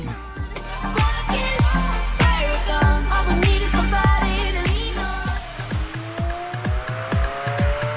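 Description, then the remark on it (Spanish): Electric race cars at the Mexico City E-Prix at the Autódromo Armado Rodríguez howl past on the track on a hot day, their high motor whine rising and falling over a steady run of sharp, rhythmic clacks and tire noise, loud, with no voices. “Un día caluroso, bonita, bonita la tarde para pasarla con estos autos eléctricos y tenemos mucho de qué platicar. Justamente vamos a escuchar esto.”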